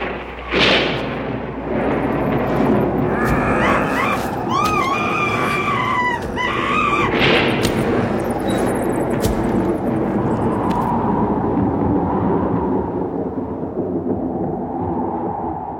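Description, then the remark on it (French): A person lets out sudden, high, wavering screams partway through, rising above a dense, steady backdrop of low throbbing rumble and hum that continues throughout, with a couple of sharp noisy bursts. “C'est inquiétant, non D'entendre quelqu'un crier tout d'un coup.”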